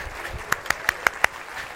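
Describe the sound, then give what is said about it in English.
An audience at Christian Life Austin church claps hands to the Lord in a quick, steady rhythm, five sharp claps in unison over a soft hum, with no voices. “Clap to the Lord.”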